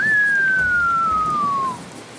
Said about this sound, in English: They come to a landing and head down another open air hall, passing by a group of idle officers. One whistles at Paez.